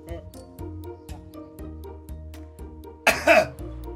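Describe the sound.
A single short, harsh cough bursts out near the end, loud and close, over a steady rhythmic music bed with a faint voice in the background.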